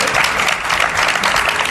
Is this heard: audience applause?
yes